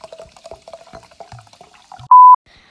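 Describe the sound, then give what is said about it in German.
Water splashes and gurgles in quick, irregular little bursts, then a short, loud electronic beep cuts in near the end. “Ja, also dieses Wasser ist echt schon geil.”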